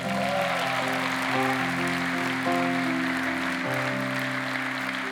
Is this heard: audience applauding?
yes